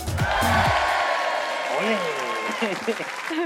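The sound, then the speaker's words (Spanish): A burst of steady clapping from a group rolls on for a few seconds at a fairly even loudness, with a few vocal whoops or shouts rising over the applause toward the end. “Te vamos a dar un aplauso.”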